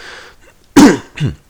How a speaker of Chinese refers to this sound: 妈的，就是咳嗽声很讨厌，对不起。